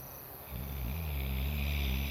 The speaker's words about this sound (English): Finally, the soft sound of crickets could be heard which lulled the tired boy to sleep.